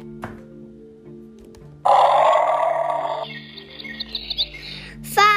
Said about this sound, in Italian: Grida quel buffo uccello. Il, il bucero, dando la, l'allarme a tutti gli altri animali.